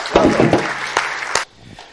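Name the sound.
applause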